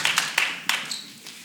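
A church audience gives God a round of applause, a dense patter of many hands clapping with a few sharper claps standing out, moderately loud and tapering off slightly by the end. No one speaks.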